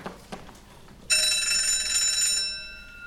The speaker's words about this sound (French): C'est alors que la sonnette annonçant l'entrée de la cour retentit. Tout le monde se lève pour accueillir la cour, c'est le protocole.